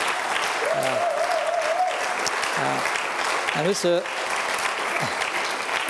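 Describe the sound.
Steady audience applause given to God for a Bible verse fills the whole stretch, a dense wash of clapping at even loudness, with a man's voice speaking over it and a sustained tone briefly rising through the noise.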